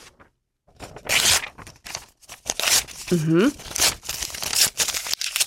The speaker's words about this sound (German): Papier zerreißen? Ja, ja, tatsächlich. Man zerreißt altes Papier, bis davon nur noch ganz kleine Schnipsel übrig geblieben sind. So will man alles loswerden, was man lieber nicht mit ins neue Jahr nehmen will.